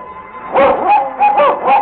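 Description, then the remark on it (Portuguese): A pack of dogs barking at night in quick, overlapping bursts, about five yelping barks in under two seconds, fairly loud, with no one talking. “Lá pelas tantas começou o barulho da cachorrada.”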